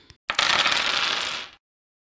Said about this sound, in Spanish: Ay Dios, vamos a lanzar estos dados a ver cómo nos va.